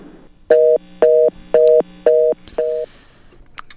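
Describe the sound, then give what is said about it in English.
A telephone tone sounds after a dropped phone call with a pastor during a Caribbean Radio Lighthouse broadcast from the island of Antigua: five short, evenly spaced beeps, loud, the last one slightly fainter, with no voices. “We lost Pastor, but we are going to get him back on the phone as soon as possible and pick up the conversation where it was left off.”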